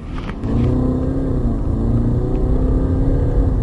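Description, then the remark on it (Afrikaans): A 2.2-litre turbo diesel engine rated at 147 kW and 436 Nm revs with a steady, loud low rumble and layered humming tones that climb slightly in pitch, rising from a brief quieter start into a sustained drone. “Die 2.2 liter turbo diesel is om meer as een rede 'n lieflike kragbron”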